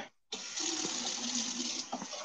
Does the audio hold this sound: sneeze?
no